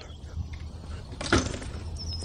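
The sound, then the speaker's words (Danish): A single short bump and rattle of a window being pushed shut, over a low steady background hum with no one speaking. “Der er nogen, der lukker et vindue, ruller gardinet ned.”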